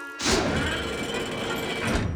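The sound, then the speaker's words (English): Cranky, a very tall crane at Brendam Docks, lifts and loads cargo with his long crane arm and hook, making a loud mechanical whirring and grinding that starts with a thud and runs steadily for about two seconds, with no voices. “Cranky has a long crane arm with a hook at the end, which he uses to lift and load cargo.”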